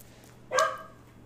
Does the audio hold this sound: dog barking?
yes